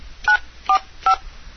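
Three short, evenly spaced beeps from a telephone keypad, each a dual-tone press, with quiet gaps between them and no one talking.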